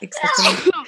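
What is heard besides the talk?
sneeze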